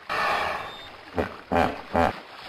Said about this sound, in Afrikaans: Mani Mier het skaars klaar gepraat of die rivier se water spat hoog op in die lug en daar is 'n harde gesnork.